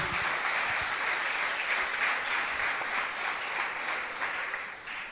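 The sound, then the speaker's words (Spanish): An audience applauds Jesus steadily, a dense wash of many hands clapping at once that holds a fairly even loudness for several seconds, with no voices standing out above it. “Le das un aplauso a Jesús.”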